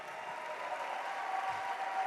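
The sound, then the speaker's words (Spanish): Steady audience applause, a dense, even wash of many hands clapping at a constant moderate level throughout, with no voices standing out over it. “Vamos, si vas a aplaudir, aplaude bien.”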